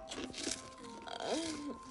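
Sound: crunching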